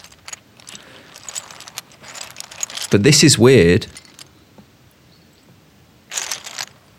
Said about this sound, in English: So this is like rummaging through bricks.